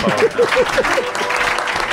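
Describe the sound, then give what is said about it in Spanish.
A room full of people claps steadily for a couple of seconds for a young lad, a dense crackle of applause with a few brief voices or whoops rising over it. “Yo voy a pedir, por favor, un aplauso para el mocete.”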